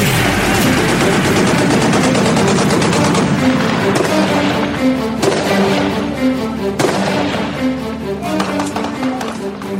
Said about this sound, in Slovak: Fúha. To bola riadna strelba, pán doktor.